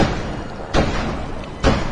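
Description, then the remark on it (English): Two firm knocks at a door, spaced about a second apart, over a steady low background hum with no voices. “Oh, get the door.”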